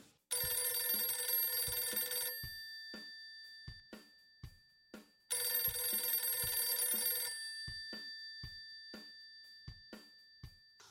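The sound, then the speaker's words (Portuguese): A telephone ringing tone sounds twice as friends are being called, each ring a bright, buzzy burst lasting about two seconds, separated by a pause, with faint clicks scattered throughout; no one speaks. “como de costume, nós ligamos para alguns amigos e perguntamos se eles conhecem o Kevlar.”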